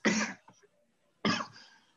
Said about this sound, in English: You see, you're, you're, making my co-host cough and choke. What the hell?